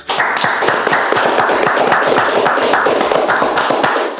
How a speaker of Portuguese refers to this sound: Salva de palmas. Salva de palmas.